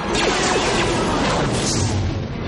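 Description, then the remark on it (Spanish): A sustained, roaring crash of destruction with layered explosions and grinding debris, loud and dense throughout, as a ship slams into the command bridge of a super star destroyer, which suffers internal explosions as it falls crashing into the Death Star. “Una nave se estrella contra el puente de mando.”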